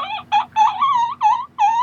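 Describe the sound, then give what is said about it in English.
A run of about five short, high-pitched squeaks made by a straining voice, in quick, uneven succession, each strained and slightly wavering, loud and clear with no talking over them. “This little oh, squeaking oh, yeah, sound yeah, yeah. that he resorts to in desperation.”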